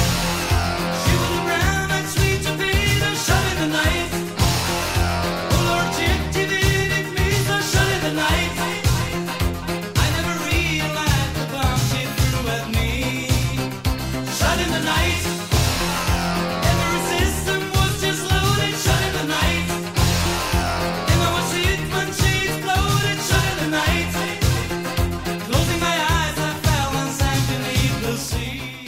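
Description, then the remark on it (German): A song by a band from 1985 plays loudly and continuously, with a steady driving beat, bass, and layered melodic instruments and vocals-like lines, no one talking over it. “Und deswegen hören wir jetzt hier rein in diese Band und in dieses Lied und ihr habt die Chance, dann in den Shownotes euch herauszusuchen, den Link und dann euch das anzuhören.”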